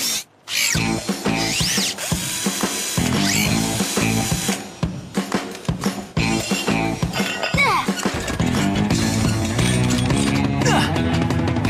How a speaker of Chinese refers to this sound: 啊，螺丝起子。